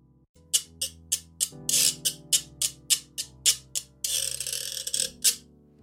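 A Puerto Rican guiro scraped in a quick, steady rhythm of short rasping strokes, with one longer continuous scrape near the end, over a soft sustained low musical backing.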